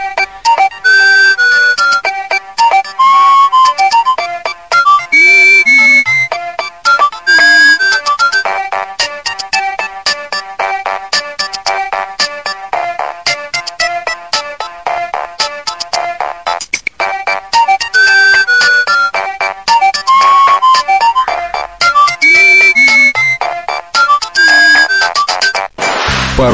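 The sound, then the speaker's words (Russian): A bright electronic standard built-in mobile phone ringtone melody plays loud and continuous, its synthesized tune looping through repeated phrases with a steady rhythmic pulse and no voices. “Теперь к категории вечной классики можно запросто отнести рингтоны, которые есть в стандартном комплекте поставки мобильного.”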